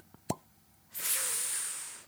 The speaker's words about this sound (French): Ah, juste le retrait du bouchon.